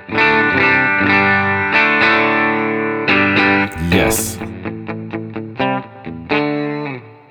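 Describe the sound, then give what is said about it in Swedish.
Clean electric guitar chords ring out through an amp, first several sustained strums, then a run of short, choppy rhythmic stabs ending on a held chord. Loud, with a single brief spoken word. “så drar jag lite ackord.”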